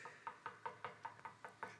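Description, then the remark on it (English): A quick, steady series of about nine sharp knocks, evenly spaced roughly five per second, moderately loud with no voices, representing a person's knees knocking together. “those were my knees knocking.”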